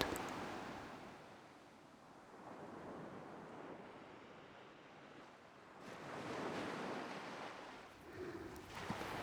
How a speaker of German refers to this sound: Du hörst das Rauschen des Meeres, riechst die salzige Luft.